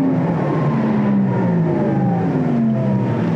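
An electric car's optional artificial engine sound, which can be switched on at will and stays subtle, not comparable to a combustion engine. It is a smooth, synthetic humming drone with layered tones that glide slowly downward in pitch, steady over a bed of rushing road noise, with no voices.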